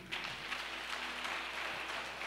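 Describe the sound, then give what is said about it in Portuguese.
A large church audience claps together for the name of Jesus in a dense, steady wash of applause that holds throughout, moderately loud, with no one speaking over it. “Aplauda bem forte o nome de Jesus.”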